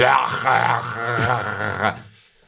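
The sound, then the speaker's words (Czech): A voice makes a run of harsh, throaty, guttural sounds imitating Arabic speech on a tram, fairly loud, with rasping bursts for about two seconds before trailing off. “kde jsou přesně ti lidé, kteří si o tebe odsednou v tramvaji, když uslyší nějaký hrdelní zvuky, takže...”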